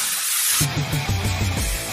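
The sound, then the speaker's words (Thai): A loud, steady hiss from a blue aerosol can of chain lubricant oil spray lasts just over half a second, then cuts off as low tonal music-like notes take over. No one speaks. “สเปรย์น้ำมันฉีดโซ่คุณภาพสูงเวลลอยเชลูกระป๋องสีฟ้า ด้วยคุณสมบัติแทรกซึมลึกถึงก้านและข้อต่อ ช่วยให้ทนแรงดึงและแรงกระชากได้อย่างดีเยี่ยม”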